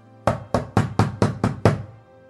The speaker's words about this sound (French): Et il était attablé à sa table, avec sa famille et ses élèves, en train de festoyer, quand, soudain, on frappa à la porte.